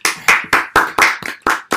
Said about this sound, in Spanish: Así que desde aquí, un aplauso, te queremos.